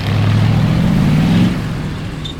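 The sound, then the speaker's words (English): A heavy tank engine revs hard as the tank climbs the far bank after crossing a stream, its deep, throaty roar climbing in pitch for over a second before easing off slightly toward the end. “gunned the engine to get the tank up the other side.”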